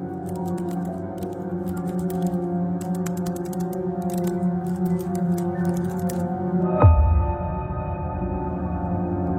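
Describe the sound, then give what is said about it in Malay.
Rapid, overlapping clatter of computer keyboards being typed on in an office, as if by several people at once, heard while waiting for the lift, over a steady low machine hum, ending with a single heavier thump. “Bunyi seperti orang sedang mengetuk papan keyboard komputer.”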